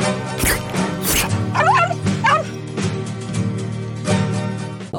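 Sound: dog barking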